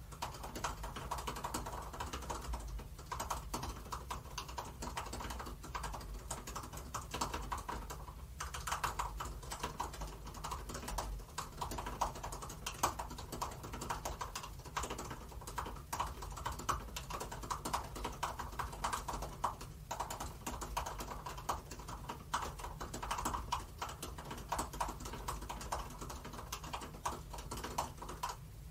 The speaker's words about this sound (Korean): 그래서 바로 보여드리려고 옆에 노트북을 가져왔어요. 그래서 한번 많이 나온 김에 에, 예, 타자 연습 키고서 몇 타 나오는지 오랜만에 좀 재볼까요? 인글 연습으로 해보겠습니다.